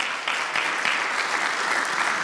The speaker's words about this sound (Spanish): Alguien de un fuerte aplauso a Cristo esta mañana.